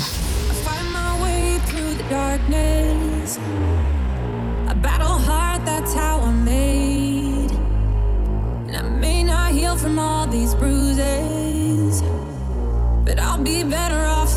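A new pop song, a new entry in the chart, plays on the radio at a steady, full volume, with a sung vocal line over a dense backing of bass, synths and beat, running continuously without any talking.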